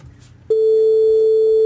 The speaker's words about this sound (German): ich kann ja mal noch einen anderen Ton zeigen, zum Beispiel einen, in dem viele verschiedene Frequenzen drin hängen. Ähm, das wäre jetzt der. Der klingt fast so wie die, wie die ähm, Sinuswelle.